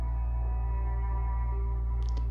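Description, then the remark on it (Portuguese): A steady, distant train whistle holds a long tonal note over a low rumbling hum, with a brief faint clatter near the end and no voices. “Então, ao longe, você escuta o som do trem apitando.”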